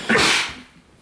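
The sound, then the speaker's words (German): A single sharp sneeze bursts out, a loud, breathy explosion of noise that fades within half a second, leaving quiet with no talking. “Gesundheit.”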